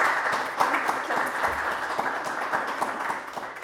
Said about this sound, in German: Herzlichen Dank. Und ähm, ja, wir, wir, klatschen